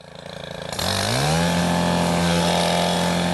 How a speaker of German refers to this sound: Das Geräusch hört man in diesen Tagen häufiger. In Sekundenschnelle raspelt die Motorsense die langen Halme an Straßenböschungen oder auf schmalen Grünstreifen ab. Ein Schwenk nach links, einer nach rechts und das Gras ist kurz.